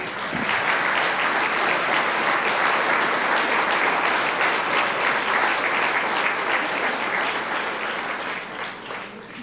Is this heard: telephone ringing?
no